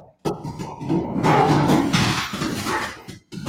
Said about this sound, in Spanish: No, no, no. mi, peor perro está peleando, pero ahorita, ahorita lo quito, perdón